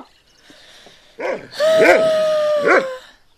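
A dog, being called in to eat its food, lets out a few sharp, high-pitched yips and barks, run together with a drawn-out whining note, all within a couple of seconds and with no one talking.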